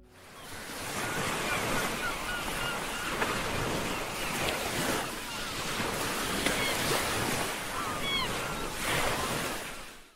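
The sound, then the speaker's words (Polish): Sea waves roll in and break on a shore, a continuous loud wash of surf with repeated surges and hissing spray, steady wind noise beneath, and no voices. “dla przypomnienia, jak brzmią fale bijące o morski brzeg.”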